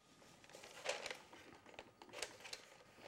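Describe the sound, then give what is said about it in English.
Soft rustling and crinkling of a stiff paper piano roll, with a few sharper crackles and rubs as the roll is handled and loaded into a player piano, and no voices present. “Now the roll's loaded, what do you have to do before you play it?”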